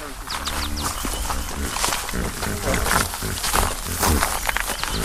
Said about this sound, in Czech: Ne, to jsou hroši a to jsou přesně ty hroši, co na nás včera se šli podívat a nelíbili jsme se jim.